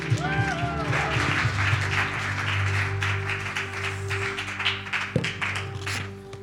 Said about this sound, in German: mit einem ganz riesen Applaus hier begrüßen und ihr Danke sagen, dass sie den weiten Weg auf sich genommen hat.